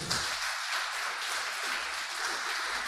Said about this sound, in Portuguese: Quem crê nisso, diga glória a Deus. Dê um forte aplauso ao Senhor.